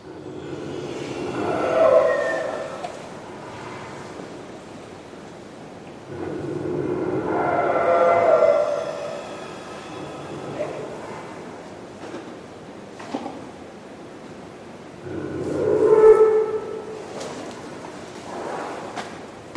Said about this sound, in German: Die liegen ja eigentlich wie Hündli mhm. auf der Seite. Äh, der Rüssel schön eingerollt und schnarchen vor sich an. Ja. und zwar im Tiefschlaf. Das hören wir jetzt gerade.